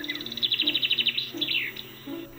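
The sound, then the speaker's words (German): Birdsong with a rapid run of bright, repeated chirps around the upper register, followed by a few sweeping whistled notes, clear over a low background hum. “Murmel, Fink und Star. Viele Vögel sind uns aus Liedern und Redewendungen von Kindheit an vertraut.”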